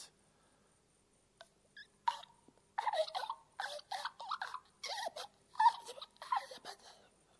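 A dog makes a series of odd, snorting throat-clearing noises in irregular bursts, fairly loud, with no one talking.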